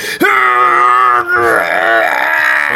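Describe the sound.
A voice imitates a laser eye blast, like an aggravated child wanting to prove it has laser eyes, with a loud, sustained, buzzing vocal tone that holds steady for nearly three seconds, dipping briefly midway before continuing strong.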